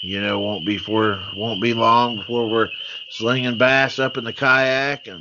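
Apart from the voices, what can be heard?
spring peeper frogs calling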